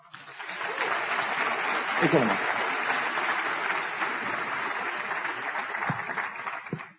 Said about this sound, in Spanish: ¿Por qué no le damos un fuerte aplauso?